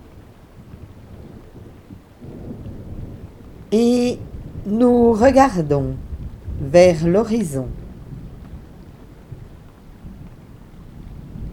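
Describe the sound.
A stormy backdrop of low rumbling thunder and steady rain over a beach, with a voice speaking briefly over it partway through before the storm noise carries on alone.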